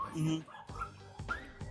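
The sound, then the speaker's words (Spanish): A dog in a studio barks and whimpers in short, high-pitched yelps, several bursts, mixed with a whiny tone, with people talking in the background. “Y ahora, ¿qué tal le hacen ese perro? Sí, tenemos perros aquí en nuestro estudio.”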